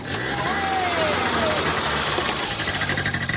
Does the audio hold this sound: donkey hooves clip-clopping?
no